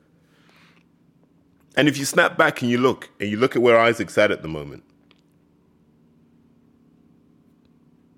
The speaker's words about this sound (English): If you can hear that in the background, that's my washing machine. Oof. I could have planned this better.